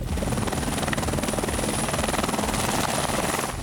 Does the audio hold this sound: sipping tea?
no